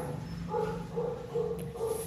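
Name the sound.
dog barking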